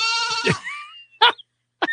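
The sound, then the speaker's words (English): A brown goat, jumping, gives one long, wavering bleat, followed by two short, sharp bleats after brief pauses. No one speaks. “that brown goat jumping is just the happiest damn goat ever.”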